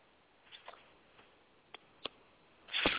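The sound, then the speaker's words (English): A phone fumbled in the hand: a few scattered light clicks and taps, then a louder burst of clattering and rubbing as it slips out of the hand. No voices. “the, the phone slipped out of my hand.”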